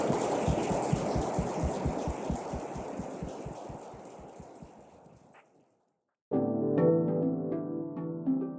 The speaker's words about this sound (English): And if you could give a round of applause to our team members here.